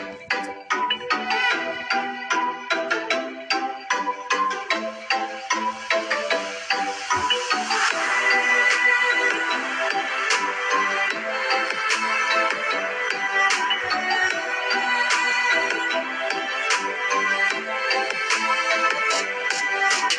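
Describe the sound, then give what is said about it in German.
A recorded song plays on its own, bright and melodic with a steady, punchy beat, growing fuller and louder after the first few seconds and holding there with no talking. “dann der fünfte Platz ist …. Das wird großes … geschrieben, …. Und wir hören direkt rein.”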